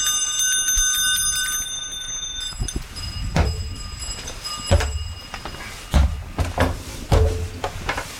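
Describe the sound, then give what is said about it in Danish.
Bright metallic sleigh bells on horses pulling a sleigh jingle and ring with sustained high tones, joined by several sharp knocks and thumps in an uneven rhythm, with no voices. “Så kom der en lov, der sagde, at Hestene skulle have pjæller på, således at man kunne høre, at de kom for at advare fodgængere.”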